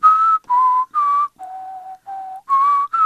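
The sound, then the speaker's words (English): Someone whistles a bell-chime tune, about seven clear, sustained notes stepping down and back up in pitch with short pauses between them, imitating school bell chimes. No one speaks. “today we're going to talk about those chimes that you hear at school”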